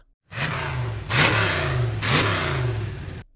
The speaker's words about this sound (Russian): «Мы все тут замерзнем. С этим надо покончить», — сказал Демодерби и нажал на педаль газа.